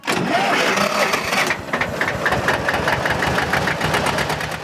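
A tractor engine cranks over and catches, then settles into a loud diesel idle with a steady rapid knocking rhythm. No voices are heard.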